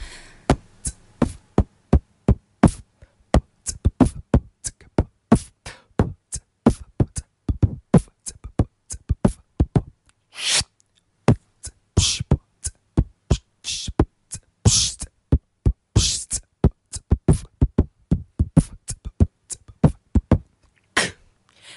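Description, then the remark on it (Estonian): A voice beatboxes alone, very close to a dedicated beatbox microphone without covering its membrane, imitating synthesizer drum sounds: rapid, punchy kick and snare-like bursts with hissy hi-hat clicks in a steady driving rhythm, loud and sustained throughout. “kui ma praegu ei oleks seda ise oma silmaga näinud, et see hääl tuleb sul suust, siis ma oleks arvanud, et keegi pani mingi trumminäidise peale, mis kusagilt süntesaatori seest tuleb.”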